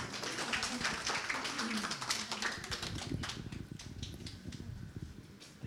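An audience breaks into sustained applause, a dense patter of many hands clapping steadily for several seconds, with a few voices mixed in early on before the clapping thins slightly toward the end.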